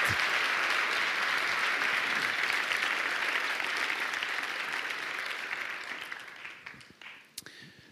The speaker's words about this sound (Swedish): Ska du ge de här papporna en stor applåd?